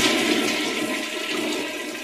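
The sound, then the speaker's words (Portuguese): A loud water rush as a lever is pressed to activate the bubbles of a hydromassage bath: a steady, hissing rush of water that holds for about two seconds with no voices over it. “Agora você entra que eu aperto esta alavanca para ativar as bolhas.”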